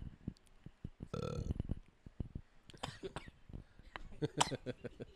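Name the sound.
burp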